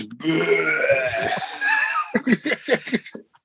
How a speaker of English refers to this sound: Oh, I love belching on beer, man. I love I love when you chug a fucking beer in three seconds.